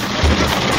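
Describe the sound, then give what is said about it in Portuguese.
Heavy rain pours down in Balneário in a steady, dense hiss that fills the whole clip, with a low rumbling undertone swelling briefly partway through. No voices are heard. “É, perdão pelo áudio, tá chuvarada aqui em Balneário.”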